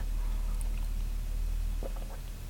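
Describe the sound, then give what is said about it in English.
A quiet sip from a drink: a brief soft slurp near the end, over a steady low hum, with no talking. “going to take a little sip.”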